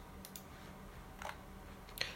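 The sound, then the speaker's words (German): A few sparse, irregular clicks on a slightly broken computer keyboard tap out over a quiet background, soft, with long pauses between the key presses and no talking. “musste ein bisschen rumdings, wie gesagt, weil meine Tastatur ein bisschen kaputt ist”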